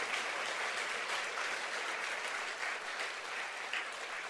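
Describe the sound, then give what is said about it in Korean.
A crowd breaks into steady applause, many hands clapping in a dense, even wash of sound that holds at a fairly loud level for several seconds with no one talking. “우리 박수 한번 쳐야 되지 않겠어요?”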